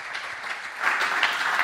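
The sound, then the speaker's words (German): An audience applauds the person about to speak, a dense steady clatter of many hands clapping that swells louder partway through and continues without any voices. “Das ist nochmal dein Applaus.”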